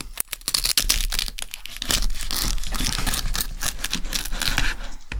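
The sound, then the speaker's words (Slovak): A knife saws through the crispy pork crackling of a porchetta, producing loud, dense crunching and crackling that continues steadily for several seconds with no talking. “Čiže teraz pána Zvukara pozdravujeme a ideme ju krájať.”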